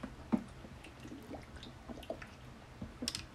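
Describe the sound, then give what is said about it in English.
Quiet sipping and swallowing sounds of someone drinking water, a few soft wet gulps and small liquid squishes spread over a few seconds, with no talking. “First, let me drink some water.”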